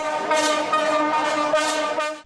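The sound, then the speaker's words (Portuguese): Several car horns blare together in a loud, continuous overlapping chorus, sustained for a couple of seconds with no talking: a honking protest by Detran Gaúcho state workers against the state government of Governor Eduardo Leite, in front of the State Administrative Center. “O buzinaço representa o descontentamento da categoria.”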